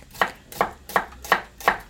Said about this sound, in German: Ich schneide die Zwiebeln sehr gerne in Streifen.